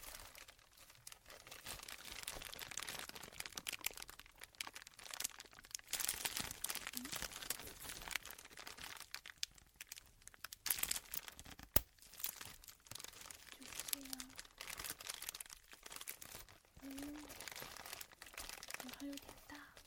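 Large shock-protective bubble wrap from the outside of an earphone box being squeezed: a steady, loud rustle of crinkling plastic broken by irregular sharp pops and crackles, with one especially strong snap partway through.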